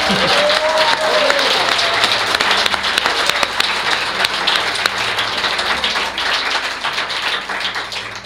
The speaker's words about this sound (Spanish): Efectivamente, estamos en el marco del octavo Congreso de Misterio y Enigmas de la Historia, acompañados pues, por casi 100 invisibles. Así que les pedimos un aplauso, ¿no? Pues este aplauso va para vosotros.